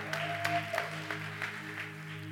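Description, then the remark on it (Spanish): An audience at a Christian church service applauds for those watching at home, a soft, steady wash of clapping marked by scattered sharper claps, while a sustained low droning tone hums underneath throughout. “Un fuerte aplauso a todos los que nos están viendo en casa.”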